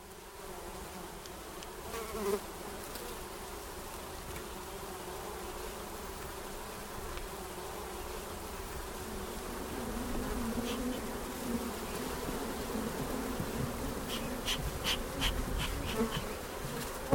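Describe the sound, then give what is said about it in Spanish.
A dense swarm of bees at an apiary in Orinda buzzes in a steady, low droning hum that swells slightly in the second half. Faint high clicks appear briefly, and no one speaks. “Se llama Piario en Orinda”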